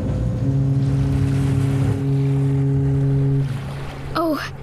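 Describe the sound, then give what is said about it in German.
A boat engine drones with a steady, low hum as the boat accelerates through rough waves in force-seven northeast winds, over a rough wash of wind and crashing water, shifting pitch slightly partway through before cutting off as a voice briefly calls out. “Das sind sieben Windstärken aus Nordost und ordentlich Welle.”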